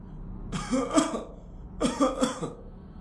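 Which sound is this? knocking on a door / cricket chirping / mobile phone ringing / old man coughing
old man coughing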